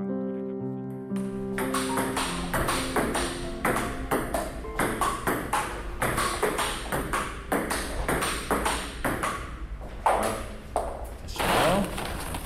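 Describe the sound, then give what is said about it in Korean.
Table tennis balls clatter in a busy ping-pong hall in Mapo-gu, Seoul, with quick, steady clicks from several overlapping rallies after a short tonal chime. Faint voices murmur in the background. “토요일 탁구장 개장으로 인생 2막 연”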